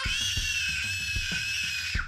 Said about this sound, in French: La jeune femme hurla de nouveau.